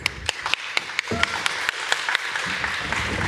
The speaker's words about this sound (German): Einen äh, herzlichen Applaus bitte.